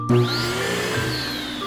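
A steady, whining suction hiss with a low mechanical hum underneath, a dentist's small vacuum sucking saliva out of a mouth for a couple of seconds, with a brief gurgling pitch shift near the start.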